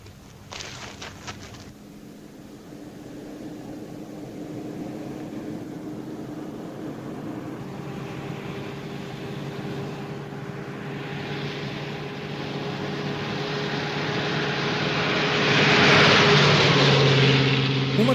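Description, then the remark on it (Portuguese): A propeller airplane engine drones steadily and grows louder as the plane approaches and passes overhead in a desert, peaking in a broad roar near the end. No one speaks. “das cenas mais esvaziadas de qualquer verossimilhança e de qualquer significado é a do avião no deserto.”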